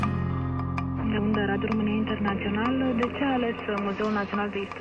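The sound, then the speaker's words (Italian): A short radio theme jingle plays, with sustained tones and a moving melodic line at steady, moderate loudness for several seconds, with no one talking over it. “Con questa sigla naturalmente diamo il benvenuto, anzi il bentornato”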